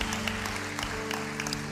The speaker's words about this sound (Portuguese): Dê um aplauso ao Senhor, você que está aqui na igreja. Aleluia! Aleluia! Aleluia!